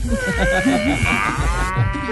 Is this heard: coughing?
no